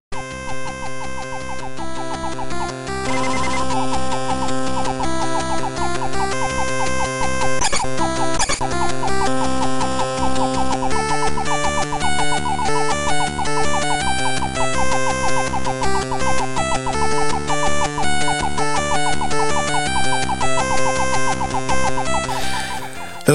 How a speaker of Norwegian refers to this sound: Men vi skal over på ukens spill. Eh, dere skal få høre en liten snutt av musikken.